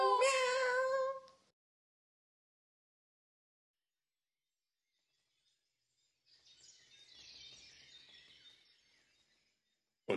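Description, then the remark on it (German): A person lets out one loud, drawn-out imitation of a cat's meow, followed by a long silence and then a softer burst of high, scratchy chirping. “Wir können uns auch mit miau, miau, miau verabschieden.”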